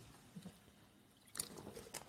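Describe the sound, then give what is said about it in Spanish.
Soft, wet mouth sounds of someone sipping and swallowing water, with a brief louder slurp and liquid squish near the end, quiet and without talking. “Perdón, que estaba bebiendo agua.”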